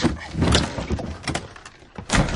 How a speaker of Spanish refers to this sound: Después, en una estancia, saca un baúl de debajo de una cama con la inscripción. Señorito Nathaniel Trablon.